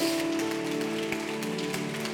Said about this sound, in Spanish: Vamos, ese aplauso. Hácelo a Dios.